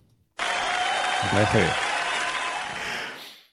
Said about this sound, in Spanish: Así que yo lo he hecho en otro podcast y lo voy a hacer ahora, pero me voy a poner un aplauso.